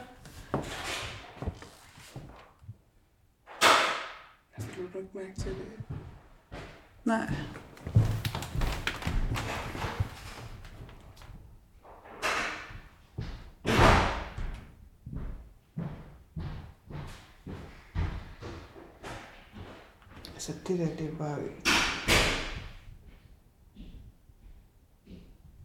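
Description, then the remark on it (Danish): Irregular muffled thuds and wooden knocks recur throughout from someone walking around on the floor upstairs, with a few sharper bumps standing out and no talking. “Går du rundt ovenpå?”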